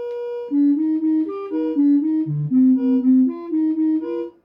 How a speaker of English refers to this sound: And as he manipulates his own brain activity, you hear a series of tones that are hopefully getting closer to the target tone.